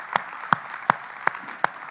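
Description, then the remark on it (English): A group claps hands together as a hand clap of praise to Jesus, in a steady, even rhythm, five sharp unified claps about a third of a second apart, over a continuous wash of scattered clapping. No one speaks. “Come on, why don't you just give Jesus a hand clap of praise right now?”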